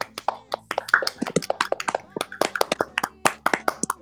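A round of applause: brisk, sharp hand claps in a quick, slightly uneven rhythm, continuing steadily for about four seconds, with a faint voice murmuring underneath.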